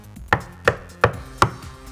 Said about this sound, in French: Comme il commençait à se chauffer, ils entendirent frapper trois ou quatre grands coups à la porte.